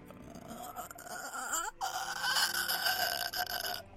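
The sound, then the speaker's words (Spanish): A voice imitates a woman's low, guttural throat sound, a rough drawn-out groan that rises and strains for several seconds, steady in loudness with no speech around it. “como un sonido un poco gutural de ella.”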